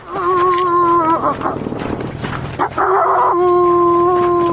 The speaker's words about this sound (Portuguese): Não, não é um cão, é um lobo. É o lobo solitário chegando.